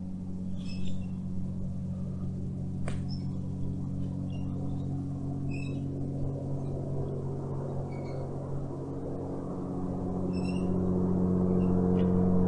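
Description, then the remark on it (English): A steady, low droning rumble of an airplane passing overhead, growing a little louder toward the end, with faint scattered chirps in the background and no one speaking. “Do you hear the airplane?”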